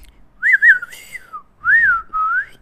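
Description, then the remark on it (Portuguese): A person whistles an imitation of R2-D2's robot droid beeps: a warbling, trilling burst followed by a long falling tone, then two rising-and-falling whistled chirps, fairly loud with no talking. “não sei imitar, só sei imitar o Tini. Enfim, e o R2D2, mas não vou”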